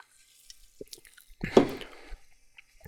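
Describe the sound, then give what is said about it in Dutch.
Someone takes a sip of Sprite Lemon, Lime and Cactus soda, with one wet gulp and a slurp in the middle of the moment, preceded by faint liquid clicks and no talking. “Ehm, ik moet mezelf nog wel even wat moed indrinken met de sp Sprite, Lemon, Lime en Cactus.”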